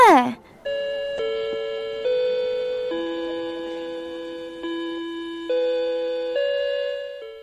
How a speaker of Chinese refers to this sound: 上课铃声恰好在这个时候响起来，艾露深深的呼了一口气，幸好上课了。